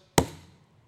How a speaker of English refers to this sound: slams down his gavel, and says, You have been forgiven.